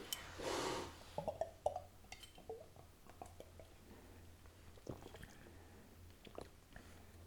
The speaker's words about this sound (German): Wirklich, der, der Schluck ging runter und ich dachte mir, Nanu, ob er, ob er da Wasser reingefüllt hat?